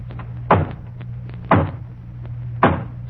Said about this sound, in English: And, and then there's the hollow knock on the front door. I'll demonstrate that, too.